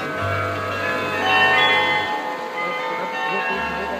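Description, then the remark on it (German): The Salzburg Glockenspiel carillon, dating from the mid-17th century and brought from Antwerp, rings out a melody of overlapping bright, sustained tones, with a low steady hum underneath and faint background murmur. It plays at 7:00, 11:00 and 18:00, with different music each month. “Es wurde von Antwerpen nach Salzburg gebracht und man hört es um 7 Uhr, um 11 Uhr und um 18 Uhr.”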